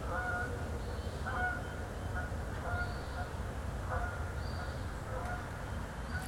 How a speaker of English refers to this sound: Wow, that was a nice flyby of a couple of Canada geese. It seems like they were flying right down the Blue Ridge Parkway corridor, which is right next to my house.